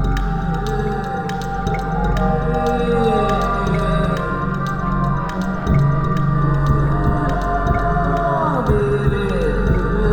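Long, moaning whale calls drift and bend in pitch over a steady, dense underwater drone, with layered tones sliding up and down and no speech.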